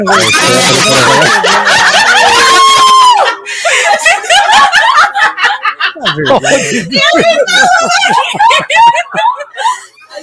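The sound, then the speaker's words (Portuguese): Several people scream loudly and excitedly, high-pitched voices overlapping with bursts of laughter and shouting, continuing in waves across the whole stretch with only a brief dip partway through. “Olha os gritos, cara.”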